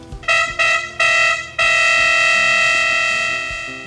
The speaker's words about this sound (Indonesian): Tak lama kemudian, wah, siapa itu yang membunyikan klakson sambil berjalan dengan percaya diri?